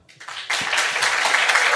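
An audience breaks into applause, starting softly and swelling after half a second into steady, dense clapping. No one speaks over it.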